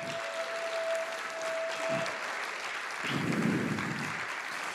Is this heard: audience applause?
yes